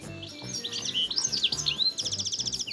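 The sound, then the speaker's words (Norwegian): Bright, busy birdsong fills the air, with rapid chirps and warbling trills that sweep up and down, ending in a quick repeated series of sharp tweets, clear with no voices. “I dag sitter tusenvis av nordmenn klare rundt om i hager og naturen ellers for å telle fugler.”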